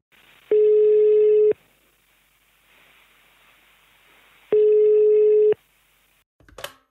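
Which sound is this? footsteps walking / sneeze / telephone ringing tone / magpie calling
telephone ringing tone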